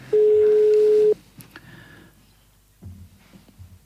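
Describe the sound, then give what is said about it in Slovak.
A phone call to a woman's mobile ringing out unanswered: one steady electronic ringback tone lasting about a second, loud and clear, followed by near silence and a few faint low murmurs. “Takže malá cigánočka nedvíha.”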